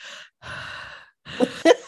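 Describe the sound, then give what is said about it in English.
A voice imitates heavy, exaggerated breathing, three drawn-out breaths, the last two ending in voiced, throaty pushes, like a creepy prank caller panting into a phone. “Like, is he like the heavy breather?”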